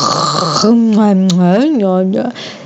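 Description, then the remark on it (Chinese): A voice imitates the snoring of Zhu Bajie asleep in a grassy field: a short, raspy, breathy intake followed by one long, loud, buzzing voiced drone whose pitch wobbles up and down before trailing off. “听见，有人打呼的声音。沙悟净循着打呼声去找，果然发现猪八戒躺在草丛里睡觉。”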